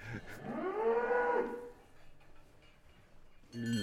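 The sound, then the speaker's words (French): A suckler cow from a farm's suckler herd lets out one long, drawn-out moo, loud, then quiet farmyard background follows until another call begins right at the end. “Tu leur parles en quelle langue à tes vaches là hein, Pas toi Qu'est-ce que tu leur as dit Venez ici, venez”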